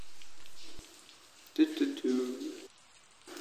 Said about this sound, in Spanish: Eh, y hoy no es un día melancólico, hoy hay lluvia de fondo. No sé si se llega a escuchar, creo que no.